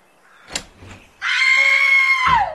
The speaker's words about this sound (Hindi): कमरे में घुसते ही मां इतनी जोर से चीखी